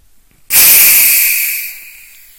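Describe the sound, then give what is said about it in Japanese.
A plastic bottle of Wilkinson tonic water twists open with a sudden, loud burst of fizzing hiss that starts abruptly, holds strong for about a second, then gradually fades as the gas escapes; no talking. “電車のブレーキの圧縮空気抜いた時の音みたいな、ド派手な音がしました。”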